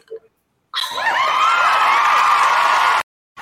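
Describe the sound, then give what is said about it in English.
A live crowd on the Easy Talk Live show cheers and whoops for a little over two seconds, loud and steady, with many overlapping high voices rising and falling before it cuts off abruptly. “the crowd tells you that you are here.”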